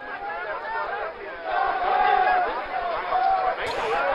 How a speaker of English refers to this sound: Yeah, that is the sound of celebration after 41 construction workers who spent 17 days trapped in a tunnel in Uttarkashi in northern India were finally rescued last night.